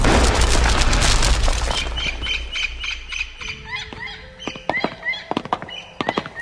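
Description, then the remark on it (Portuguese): A loud gunpowder blast blows open the doors of a stone temple, roaring for about two seconds with a deep rumble, then fades into scattered crackles, sharp thuds and high creaking squeals as debris and doors settle. “Trouxemos alguma pólvora que ficou seca ainda e a usamos para explodir as portas do templo Cirne.”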